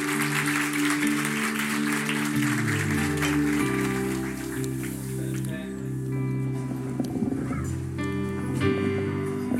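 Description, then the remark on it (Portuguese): An audience applauds the Lord continuously for several seconds, a dense, steady patter of clapping layered over sustained organ-like keyboard chords that shift slowly underneath. “Aplauda o Senhor!”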